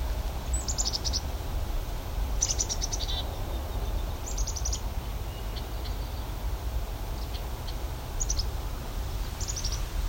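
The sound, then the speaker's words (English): A black-capped chickadee calls repeatedly beside a trail through an open meadow, about five or six short high-pitched bursts spaced a couple of seconds apart, fairly faint against a steady rushing outdoor background. “Oh, there's a black-capped chickadee.”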